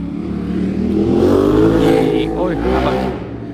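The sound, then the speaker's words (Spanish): A motorcycle engine drones past, its pitch rising and falling as it swells louder midway and then fades, with voices faintly audible in the background. “ha, pasado una moto un poco extraña.”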